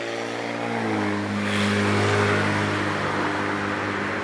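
A loud engine drones steadily with a deep tonal hum, swelling slightly in the middle as a car rolls past outside, with no talking over it.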